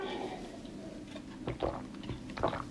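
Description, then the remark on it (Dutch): Someone takes a sip of water: a few soft, wet mouth sounds and small gulps over a quiet background, with no talking. “Eventjes een slokje water, denk ik, pakken.”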